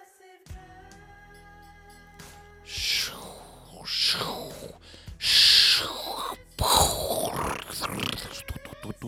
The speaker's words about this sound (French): Ce que vous entendez C'est encore le bruit des vagues. Ouais, ok, ça fait longtemps que je suis pas allé à la mer. Mais cette fois, ce sont celles d'Ajaccio,